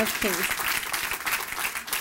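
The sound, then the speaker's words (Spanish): A crowd breaks into dense, sustained applause for the King of Kings, steady clapping filling the whole stretch with a brief voice rising over it near the start. “Él ese fuerte aplauso al Rey de Reyes.”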